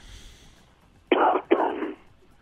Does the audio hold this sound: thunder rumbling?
no